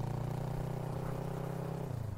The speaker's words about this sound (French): C'est donc parti, me voilà à cheval sur une moto, je suis à l'arrière avec un des deux gars qui y conduit, et nous partons comme pour une quête dans le vent, à l'aventure, librement, dans un paysage sans limite.